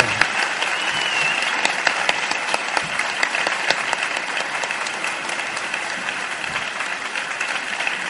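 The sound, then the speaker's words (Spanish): Sustained audience applause fills the whole stretch, a dense steady patter of many hands clapping at an even, fairly loud level with no voices rising above it. “Un aplauso para”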